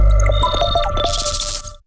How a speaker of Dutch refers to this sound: Wat je hoorde is het zogenaamde soundlogo van audiodescriptie. Als je dat soundlogo op je televisie hoort, weet je dat je het betreffende programma kunt meekijken met audiodescriptie via de Earcatch app.